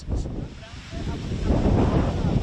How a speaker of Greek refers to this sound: Δυστυχώς παιδιά, πέρασε η φωτιά πέρασε η φωτιά. Αν δείτε εκεί πέρα, πέρασε μέσα από, το, από την πλευρά, από την απέναντι πλευρά του δρόμου λόγω των ισχυρών ανέμων.